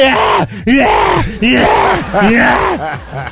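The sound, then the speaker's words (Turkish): A voice imitates heavy, exaggerated panting after climbing ten flights of stairs: loud, rhythmic voiced huffs and groaning breaths repeating in quick succession, with no words spoken. “Abicim ben 10 tane merdiven çıkınca bak böyle soluyorum.”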